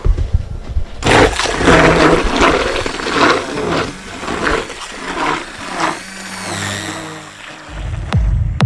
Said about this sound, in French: Avec le papier broyé, on met dans l'eau et Lilou et Stéphane en train de mélanger. Lilou va mixer les feuilles et l'eau.